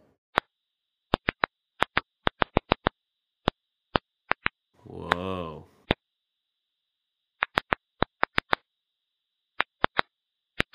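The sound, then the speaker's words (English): Sharp, dry clicks from a thirsty tomato plant pop out irregularly, sometimes in quick bursts, against near silence, with a brief voiced exclamation partway through. “Yeah, that's the sound of a tomato plant that's thirsty.”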